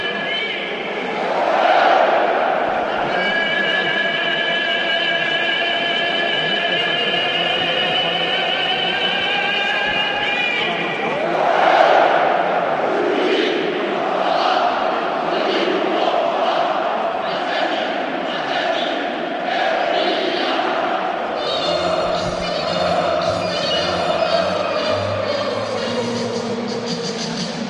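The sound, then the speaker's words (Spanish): A huge stadium crowd sings the Athletic Club anthem a cappella at San Mamés on a big match night, thousands of voices holding long, swelling notes in unison, loud and steady throughout with no instruments, the roar thickening toward the end. “así suena la catedral. El himno, a capela.”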